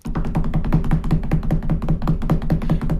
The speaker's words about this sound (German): Okay, dann ähm, musst du klopfen und, und, du sagst den Namen.